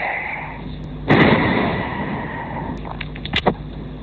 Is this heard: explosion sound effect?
yes